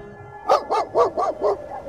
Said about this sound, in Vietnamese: Bên ngoài trời gió vẫn tiếp tục thổi mạnh, sát đập vào cửa khiến cho con vàng đang nằm ở ngoài hiên cũng phải nhổm dậy rồi hít mõm ra phía ngoài sân sủa lên vài tiếng